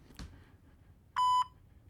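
A phone voicemail beep before a message is left: a single loud electronic beep, a steady pure tone lasting about a quarter second, sounds after a brief faint click, the kind of tone that signals recording has started.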